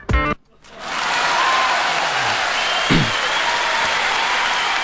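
A brief voice at the start gives way to sustained audience applause welcoming an investment director of Miyin Capital on a startup show, a dense, steady wash of clapping that swells quickly and holds at a fairly loud level to the end.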